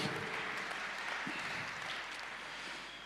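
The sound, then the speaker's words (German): An audience at a church service applauds for Jesus, a dense wash of many hands clapping at once with no pauses, holding fairly even in loudness and easing off only slightly toward the end. “Lass doch Jesus nochmal einen Applaus geben.”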